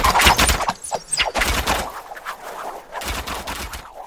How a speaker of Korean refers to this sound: 적이 아무래도 공성작전을 개시한 것 같습니다. 우리도 무기로서 대응을 해야 합니다. 외적의 조총수들이 점점 가까이 다가오면서 총을 쏘고 있습니다.